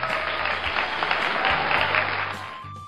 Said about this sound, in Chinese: 此处可以有掌声哈！